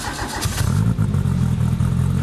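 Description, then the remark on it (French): A Renault R5 Turbo sports car, with its engine mounted centrally at the rear, revs hard, a loud throaty roar with rising and falling pitch that fills the whole stretch, with no voices. “Fort de son succès, Renault va la décliner dans plusieurs versions, dont la cultissime R5 Turbo”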